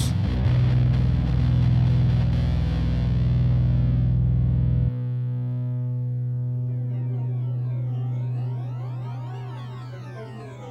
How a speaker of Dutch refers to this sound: En zoals je hoort heb ik voor deze intro mijn elektrische gitaar erbij gepakt. En ik heb weer ontdekt dat je ontzettende rare geluiden kunt maken, zoals deze. Of eh, dit, eh, dit soort dingen is ook leuk.